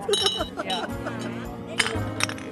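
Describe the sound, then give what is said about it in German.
Glasses clink together several times in a toast, bright ringing taps, with voices murmuring and a low background hum underneath. “In diesem Sinne Prost.”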